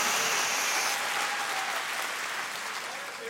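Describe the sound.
An audience at a church service applauds to give glory to God, in a sustained, dense wash of clapping that holds steady throughout, fairly loud, with a faint tone and murmur of voices mixed in.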